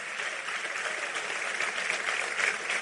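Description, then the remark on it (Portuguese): An audience applauding, a steady, dense wash of clapping hands that holds at an even level for a few seconds, with no voices standing out. “Aplauda ele aí, que coisa linda, né, irmão?”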